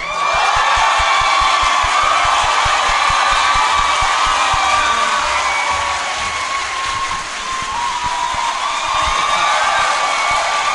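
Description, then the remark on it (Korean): A large crowd bursts into loud, sustained applause for emergency committee member Pyo Chang-won, with dense clapping, and cheers and whoops rise over it for the full stretch, with no break in the noise. “에, 다음 모실 분은 개인적으로 저는 저희 라이브, 라이브라고 생각하기 때문에 박수를 아주 살짝만 쳐주시길 부탁드리겠습니다.”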